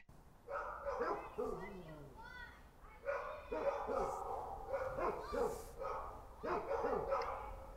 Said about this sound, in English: And then the neighbor across the street, they tied their dog up to the tree like they always do, and that dog started barking at the other neighbor dog.